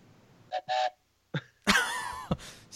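A whistle blown in a few bursts: two short toots, a pause, then a long, loud, shrill blast with a wavering pitch and one more quick blast. No one talks.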